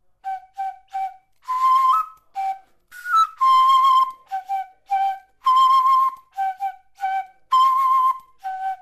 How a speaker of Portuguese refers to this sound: o Doshi produz todos os sons de uma flauta comum, mas a particularidade é que as notas não são escritas. Aqui tem do, ré, mi, fá, sol, si, do. Aqui tem tudo.